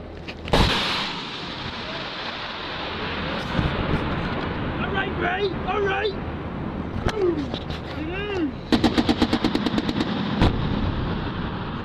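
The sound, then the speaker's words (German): A sharp gunshot rings out, then a rapid burst of automatic gunfire cracks in quick succession during combat in Afghanistan, recorded in an amateur video, with men's voices shouting over a noisy outdoor background. “suche auf YouTube und Live League nach Videos zu Raketenangriffen und Kampfhandlungen in Afghanistan”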